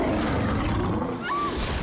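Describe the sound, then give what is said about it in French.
A sabre-toothed tiger lets out a deep, rumbling, loud roar, sustained for nearly two seconds with no speech over it. “C'est quoi ce truc Un tigre à dents de sable.”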